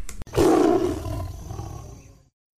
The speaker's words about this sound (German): Ach, jetzt kommt der Wind wieder, aber ist egal.